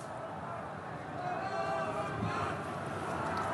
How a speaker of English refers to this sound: I'm not sure if you can hear right now, but the city is literally echoing with the cries of people. They're chanting Allahu Akbar, which means God is the greatest, but in this context they're they're chanting it across the city